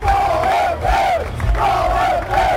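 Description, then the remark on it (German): A loud, dense crowd at a sports event chants and roars in unison, the massed voices swelling and falling in repeated waves without a break. “Wenn Sie dann also zum Beispiel zu einer Familienfeier gehen, wo es laut hergeht, oder zu einer Sportveranstaltung, wo es lauter ist, und haben die gleiche Verstärkung wie bei Ihnen zu Hause, wo es ruhig ist, dann kann es sehr leicht zu laut werden.”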